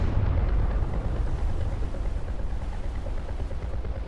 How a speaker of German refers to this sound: Zunächst war da der gedämpfte Knall einer Explosion. Danach ein zweiter und ein dritter, lauter bereits.